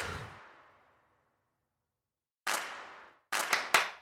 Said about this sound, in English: so just one simple clap pattern backed up with other patterns